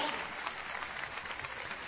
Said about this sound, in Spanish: Muy bien. Felicitaciones, un aplauso para los octogenarios.